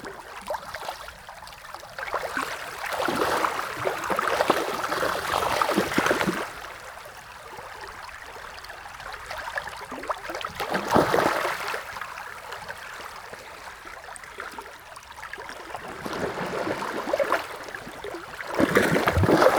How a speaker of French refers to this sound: nous voici de retour au bord de la rivière, au niveau d'une confluence particulièrement sonore, alternant zones de radier et bassins régulièrement brouillés par des grappes de saumon frénétiques.